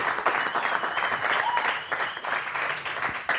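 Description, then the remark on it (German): Steady, dense applause from an audience at Apfelweinwagner for a prize-draw winner, many hands clapping at once in a continuous crackling wash that holds at an even, fairly loud level throughout. “Tosenden Applaus bitte hier bei Apfelweinwagner, meine Damen und Herren.”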